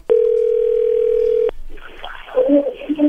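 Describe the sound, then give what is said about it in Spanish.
A steady, loud single-pitched telephone tone sounds for about a second and a half as a phone call is placed, then cuts off abruptly, followed by faint muffled voices and line noise. “Bien, ahora vamos a marcarle a ver si te manda los chocolates a ti o se los manda alguien más, ¿ok?”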